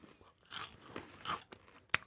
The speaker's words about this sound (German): Wie findest du das, dass ich dir hier noch so Chips-Essgeräusche einspiele?